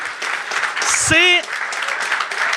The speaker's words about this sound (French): Premièrement, bonne main d'applaudissement, Charles Séguin.